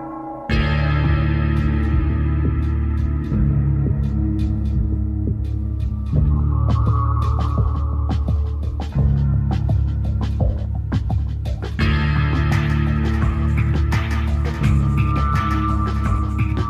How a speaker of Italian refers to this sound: E prima di tuffarci nelle profondità di Black Mesa ascoltiamoci una piccola parte della colonna sonora di questo gioco.